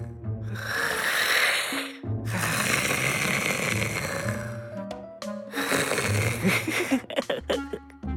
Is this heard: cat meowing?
no